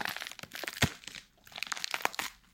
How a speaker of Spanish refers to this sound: Eso suena como apio. o sea, me muero de hambre de artista de poli. Suena como apio rompiéndose.